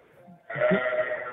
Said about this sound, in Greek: Πάνε λίγο, πιο κοντά να ακούσουμε λίγο προβατάκι πιο δυνατά.